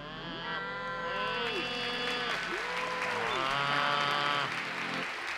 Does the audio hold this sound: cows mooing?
yes